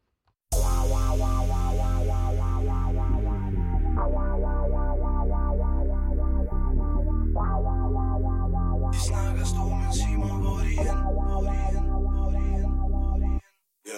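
A rap song, one of the songs that can be chosen to play at Dalle Valle, plays loud and steady, with heavy bass and buzzy, distorted synth chords that shift every few seconds. Crisp hi-hat percussion joins partway through. No vocals are heard.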